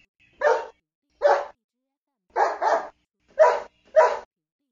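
Six sharp dog barks ring out loud, spaced apart with one quick double bark in the middle, each followed by silence.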